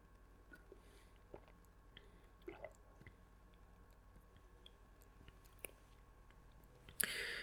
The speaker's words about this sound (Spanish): Voy a echar un trago de agua.